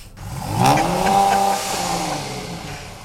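A Dodge Challenger with a 410-horsepower engine revs up loudly, its deep rumble climbing and easing back a couple of times with no one talking.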